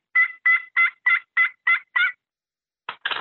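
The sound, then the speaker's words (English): A turkey pot call played with a yellow wood striker: seven evenly spaced, raspy yelps in a steady rhythm, clear, then a brief pause before two rougher scratchy notes. “And then I've got a, a yellow wood that gives a certain sound.”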